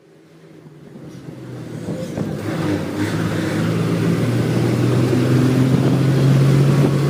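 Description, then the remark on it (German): Steady engine rumble from inside a moving bus travelling to Graz on 29 January 2023, a low droning hum that swells gradually louder as the vehicle picks up speed, with no talking. “Ich sitze in einem Bus unterwegs nach Graz, wo der Prozess wegen Wettbetrugs gegen den ehemaligen Fußballer Bartolome Courou über die Bühne gehen wird.”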